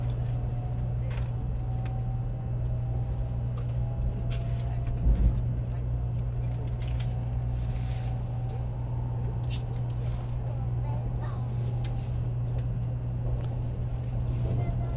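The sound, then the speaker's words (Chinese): A high-speed train starting to move: a steady, low electric hum with a smooth, even rumble underneath, punctuated by a few soft clicks and faint rattles, with no voices. “好，现在其实高铁要开了，它已经在动了。”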